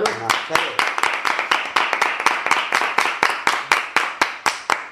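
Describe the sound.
Applause as steady, rhythmic hand clapping: sharp, loud claps at a brisk even pace of about four per second, continuing for the whole five seconds, with a voice briefly underneath at the start.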